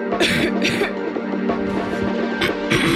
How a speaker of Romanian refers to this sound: Tuse.